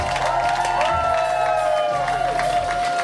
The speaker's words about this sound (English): Please start clapping right now for Natalie Rotter-Laitman.